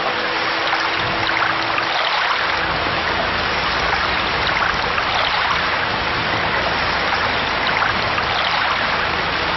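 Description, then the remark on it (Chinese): Steady, dense hiss of heavy November rain that has fallen for several days, heard aboard a boat, pouring down without letup, a loud even wash of water with a faint low rumble underneath and no voices. “这雨下了好几天了，怎么一点都没有停的迹象？”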